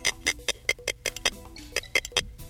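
A rapid series of sharp, crackly clicking pulses in uneven bursts from a spiny lobster drawing its antenna across a smooth plate under its eyes to distract a predator, clear with no voices.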